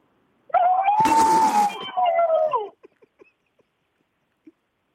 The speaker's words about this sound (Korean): 한번 들어보겠습니다. 코끼리예요.